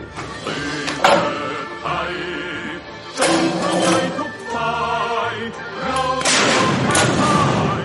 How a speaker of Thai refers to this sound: วันที่ 13 กรกฎาคมนี้ กองทัพเรือได้จัดพิธีลำลึกขึ้นเป็นพิเศษ โดยจะมีการจัดกิจกรรมณป้อมพระจุลจอมเกล้าจังหวัดสุรปราการ ได้แก่การยิงปืนเสือหมอบที่กองทัพเรือดูแลรักษา ซึ่งมีอายุถึง 130 ปี